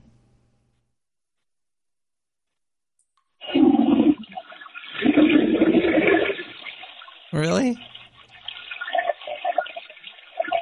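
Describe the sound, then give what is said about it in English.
A toilet flushes, played back from a phone call sent in by a caller: a loud rushing roar of water after a few seconds of silence, gurgling and swirling to the end, while a voice briefly speaks over it. “Somebody, somebody sent me a toilet flush.”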